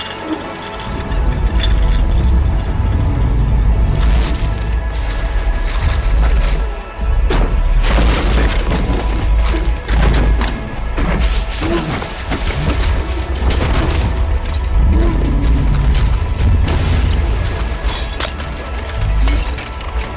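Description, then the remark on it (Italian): Glass shatters and explodes in a loud, chaotic barrage, with repeated crashes, deep booms and splintering debris raining down almost continuously for about twenty seconds, overwhelming. “E tutti questi vetri in faccia fanno male quando ci sei dentro.”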